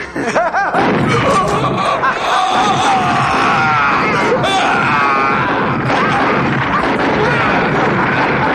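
A loud, sustained barrage of rapid gunshots in a film scene, the shots that kill the character Murphy, crackles nonstop, tangled with strained shouts and pained groaning voices, everything dense for the whole stretch.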